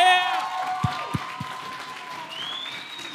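A crowd at a worship evening rises from their chairs and applauds and cheers to welcome a preacher coming to share a message; a steady wash of clapping fills the room, with a few sharp louder claps and rising whoops over it.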